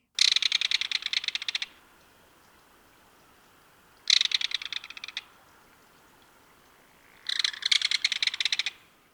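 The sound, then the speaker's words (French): A burrow-nesting waterside bird of streams, lakes and coasts, ranging from Alaska and Canada to the southern United States and wintering to Panama, calls in three bursts of rapid, shrill, high-pitched trilled notes, each lasting a second or two and separated by short pauses, clear with no voices. “Et voici la voix de l'oiseau à l'honneur aujourd'hui.”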